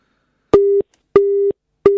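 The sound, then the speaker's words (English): A telephone busy signal after the called person switched his phone off: a steady, loud mid-pitched tone pulsing on and off in short, evenly spaced beeps, three bursts heard clearly with no voices around it. “He switched his phone off.”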